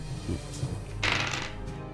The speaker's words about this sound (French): et moi, il faut que je tire aussi des dés. Il faut que tu relances et tu ajoutes ton habileté à toi.